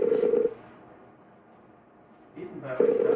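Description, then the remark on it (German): A phone ringback tone on an outgoing call trying to reach someone sounds in two steady, fairly loud beeps, one at the start and another near the end, with a quiet pause between them and no one talking. “die jetzt minutenlang ja. dieses scheiß Getüte sich anhören”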